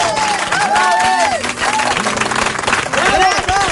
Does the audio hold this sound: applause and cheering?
yes